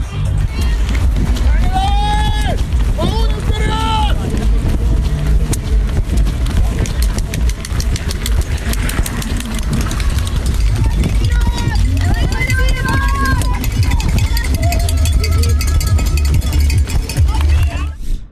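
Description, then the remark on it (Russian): A loud, continuous outdoor crowd cheers runners on at a race finish as a runner crosses the finish line, with raised voices shouting encouragement over a dense, steady roar of noise and footsteps. “Пододобряющие э, звуки э, толпы”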